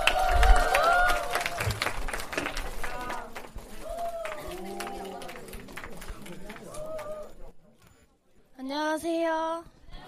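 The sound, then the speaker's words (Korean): Audience applause welcoming a celebratory performance by Iksan youth before a film screening, a dense wash of clapping and crowd noise over the first few seconds, fading as voices and a tonal, sung-sounding line take over. “큰 박수로 맞이해 주세요.”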